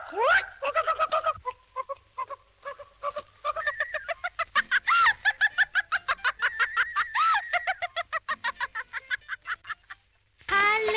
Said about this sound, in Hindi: क्या मुर्गी हाँ पकड़ लाओ मुर्गी हाँ ये तो मेरे बाएं हाथ का काम है अभी पकड़ता हूँ